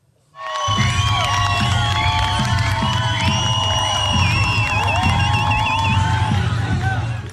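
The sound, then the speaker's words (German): A loud protest crowd in Zürich, Switzerland, Iranian women protesting compulsory headscarves after Mahsa Amini's death, shouts and chants without pause, many voices overlapping, with high whistles and warbling cries cutting through a steady low rumble. “Hunderte Iranerinnen, die in der Schweiz leben, haben nach dem Tod von Mascha Amini gegen den Kopftuchzwang protestiert”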